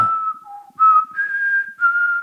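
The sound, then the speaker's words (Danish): Someone whistles a short, gentle movie theme melody of several sustained, gliding notes, clear, with no talking over it. “Øhm, øh, der er den her fløjte-melodi, som...”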